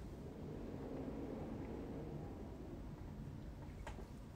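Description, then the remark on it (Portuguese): Strong wind roars steadily across the microphone, a dense low rumble that buffets without pause for the whole stretch. No one speaks. “Eu não sei se vocês ouvem o vento aqui.”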